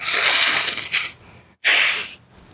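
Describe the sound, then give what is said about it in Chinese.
Two loud, breathy bursts of nasal air separated by a brief pause, like a sneeze or a forceful nose blow. Each ends with a softer trailing exhale. The nose is allergic after an air conditioner and an electric fan were switched on, and a tissue is fetched. No speech. “欸、我先拿个，我先拿个卫生纸，因为上个礼拜啊，我们手机会过热，所以我今天这个礼拜就是开了冷气”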